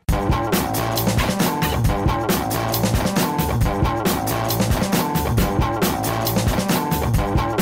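A loud, dense rock track plays from a recording, with driving drums, distorted guitars and a steady pounding rhythm running continuously throughout, no talking over it.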